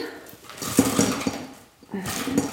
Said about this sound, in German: Ich habe extra Eiswürfel gemacht. Oh, Vorsicht, also die plumpsen hier ja schon so raus. Jetzt kommen hier erstmal die Eiswürfel rein.